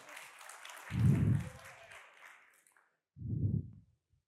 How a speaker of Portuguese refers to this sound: Aí, palmas para eles aí, pessoal.